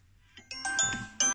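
A phone ringtone plays a short melodic run of bright, bell-like electronic notes, several quick tones in a row at moderate volume, ending with an abrupt cut-off.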